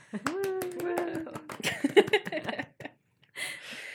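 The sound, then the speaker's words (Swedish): A short burst of applause from a few people welcoming an amateur archivist guest, quick sharp claps and snaps in a loose rhythm, joined by a sustained hooting voice and chatter, ending abruptly before a brief pause. “Stor applåd!”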